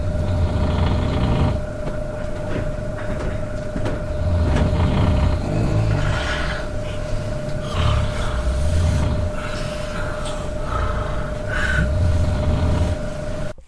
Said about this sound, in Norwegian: Så jeg tror bare jeg var maks uheldig med, med de folkene som var i, i samme rom som meg. Eh, men eh, jeg måtte bare recorde den her sjuke snorkinga, så eh, nå skal du få høre ja, kanskje fem sekunder av, av natta mi.